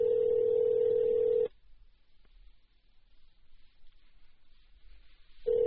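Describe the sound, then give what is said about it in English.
A phone line rings out on the caller's end: a steady electronic ringback tone sounds, falls silent for several seconds, then starts again, with nobody picking up. “Maybe she cheats a lot of people and then just doesn't answer her phone.”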